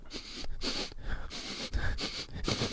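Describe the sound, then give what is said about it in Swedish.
A person sniffs loudly and theatrically through the nose, a quick series of five or six airy snorts in an uneven rhythm, with no talking. “Jag luktar ju på allt.”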